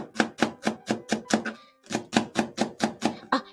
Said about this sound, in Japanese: じゃまずちょっと、長ネギをですね、えー、どれぐらいにしましょうか。15センチぐらい。はい。みじん切りでも輪切りでも何でも大丈夫です。ちょっとね、切っていきたいと思います。